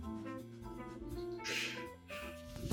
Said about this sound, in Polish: Dopiero teraz się mm. skapnęłam, że to mruczenie to jest buczenie os.